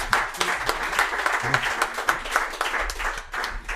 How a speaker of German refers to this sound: Ein Applaus für den